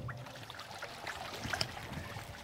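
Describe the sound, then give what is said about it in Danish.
Water splashing and sloshing steadily in a penguin pool, a continuous churning with small irregular slaps and drips, no voices. “Ja, det plasker og siger sådan en, en lille rappende lyd i dag.”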